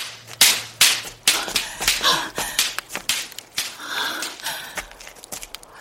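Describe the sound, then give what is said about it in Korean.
Sharp, irregular pops and cracks burst in quick succession as a pile of dry bamboo pushed into a traditional fire hole (agungi) burns, the hollow spaces in the bamboo branches bursting like firecrackers, with a soft crackling hiss between the louder snaps. No voices. “대나무 가지의 빈 구멍이 아궁이 속에서 폭죽처럼 터지면서 나는 소리였다.”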